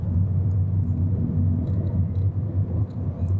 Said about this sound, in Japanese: まあ、僕はね、今こうやって車で登ってますけど、まあね、GSC トレイルまでのこの道はね、狭い、かなり狭いんで、前から車がたりするとすれ違いが困難だったりするので、まあ、注意しながら上がってもらって、えまさに今もそういう状況に陥っているんですけど